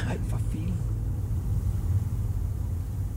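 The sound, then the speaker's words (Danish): Steady low engine rumble from inside a moving car driving through the countryside toward a field, a constant droning hum filling the cabin throughout, with a brief faint voice-like sound near the start. “vi er også midt ude i naturen, men vi sidder i Ivers bil”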